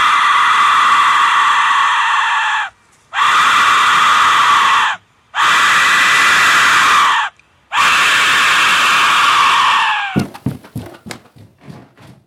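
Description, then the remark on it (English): An ancient skull-shaped whistle shrieks in four long, piercing, scream-like blasts separated by brief pauses, loud, followed by a short scatter of fading clattering clicks. “Usually in the shape of a skull or an owl's head, the sound it makes is not funny, mellifluous, or reassuring.”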